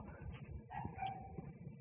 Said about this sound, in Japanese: 犬の声が聞こえますね。